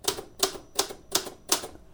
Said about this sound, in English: there are sort of soloists, uh, typewriter song soloists who come on and play this with orchestra